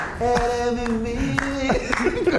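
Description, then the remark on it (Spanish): Several sharp hand claps land at a loose, uneven pace while a voice sings or holds a drawn-out tone underneath, moderately loud: a man singing and clapping to cheer on the tables. “Y empezaba a animar a todos y aplaudía y empezaba.”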